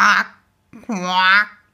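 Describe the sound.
A voice imitates a frog croak that sounds rather like a duck's quack: a short nasal call, a pause, then a longer, drawn-out one, fairly loud.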